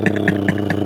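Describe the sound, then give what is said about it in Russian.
A voice imitates the huge engines of a Ruslan airplane: a loud, steady droning buzz that pulses in a regular throbbing rhythm, about four beats over the short clip, with no words spoken. “А, да, огромными, знаешь. двигателями залетел,”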